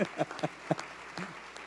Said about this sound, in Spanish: Ah, dale un aplauso a Dios. No tenemos ya mucho tiempo, pero para un aplauso.